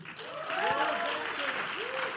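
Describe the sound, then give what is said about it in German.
An audience claps for the guests at a campus pastor's request, steadily for about two seconds, a dense, even patter of many hands at moderate volume, with a few voices calling out underneath. “Kriegen wir nochmal einen Applaus für all unsere Gäste.”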